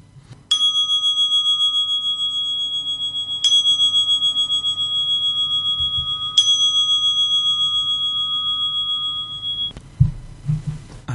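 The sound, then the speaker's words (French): A bell is struck three times at steady intervals of a few seconds, each clear metallic tone ringing out and overlapping the next before fading, with a faint low rumble beneath and no talking. “Je vous laisse avec le son de la cloche.”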